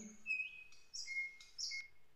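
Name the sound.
birds singing in spring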